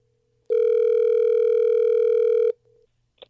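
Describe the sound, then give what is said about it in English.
A loud, steady telephone tone holds for about two seconds as a call is dialed, then cuts off, followed by a faint brief tone and a short click. No one speaks. “Sorry, the phone's really loud when we dial.”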